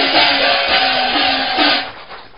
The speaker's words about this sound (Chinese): 谢谢，感谢大家的掌声啊！